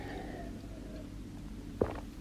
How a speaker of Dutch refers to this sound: Nou, ik pak nog even weer een slokje water voordat ik je daar verder over ga vertellen.